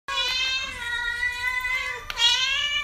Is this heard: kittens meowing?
yes